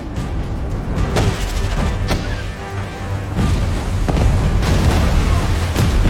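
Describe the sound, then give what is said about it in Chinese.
Repeated deep, rumbling booms of depth charges released from a warship detonating underwater against a submarine, several heavy blasts spaced a second or so apart over a constant low roar, with no voices. “就在相互交叠处，下令释放深水炸弹。”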